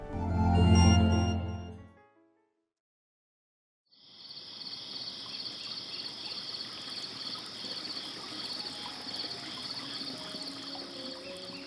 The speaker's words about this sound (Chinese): 山林里的虫鸣、鸟叫、溪水潺潺，听一整晚也都不觉得扰人。